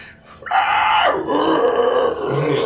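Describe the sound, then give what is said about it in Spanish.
During a role-playing game, a person vocally imitates a creature screaming after it is hit: a loud, strained, grunting shriek that starts high and abrupt, then drops into a rough, lower growl sustained for a couple of seconds. “Le pegas a la criatura, ves nada más como esta grita.”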